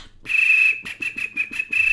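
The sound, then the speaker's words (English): A high, bird-like human whistle made entirely with the lips holds one steady pitch for nearly two seconds, broken by several quick rhythmic breathy pulses. It is fairly loud, with no talking. “this is a whistle i do completely with my lips”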